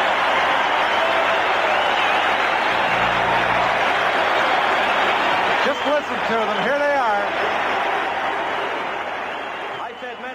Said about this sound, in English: he was so loved in Toronto, so loved, that this was the ovation he received at Maple Leaf Gardens when he played for Team Sweden in the 1976 Canada Cup. You can hear the applause here at Maple Leaf Gardens for Börje Salming. Many are standing.